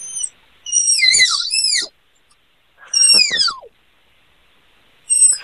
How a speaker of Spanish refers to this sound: Los tapires más o menos pueden hacer este sonido, ¿no?